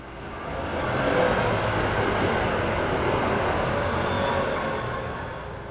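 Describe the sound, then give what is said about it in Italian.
Steady, dense traffic rumble on a shop-lined street in central Milan, Italy, where two trams and buses pass, with a passing tram, a broad continuous roar that swells and fades slightly over several seconds, with no voices. “la casa dove abitiamo è su una via, secondo me in centro a Milano, perché ci passano un po' tutti, ci passano due tram, i bus, eh, è piena di negozi di più tipi.”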